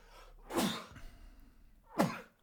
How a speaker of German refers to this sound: Ähm, oh, ich muss niesen.